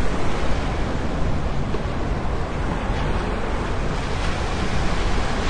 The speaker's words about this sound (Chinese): 这是海滩上浪来浪去的声音，这就不是山上那样听起来雄伟壮阔又混沌一片的了。这个是很安静的，慢慢来的。